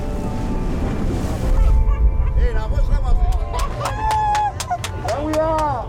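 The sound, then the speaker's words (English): Steady low rumble of a boat at sea two days out of the Seychelles, bound for Peros Banhos in the Chagos archipelago, with wind and rushing water, faint, indistinct voices and short chirping calls rising over the noise toward the end. “On the boat, we are all uh, excited to see our birthplace.”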